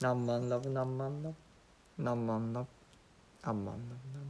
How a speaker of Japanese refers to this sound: 鳥が鳴いてくれていますね